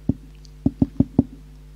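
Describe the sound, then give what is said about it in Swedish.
Five solid knocks on a door, fairly loud: a single rap, a short pause, then four quick evenly spaced knocks, with no voices. “Och jag satt vid bordet och plötsligt, eh, då var någon som knackade på dörren.”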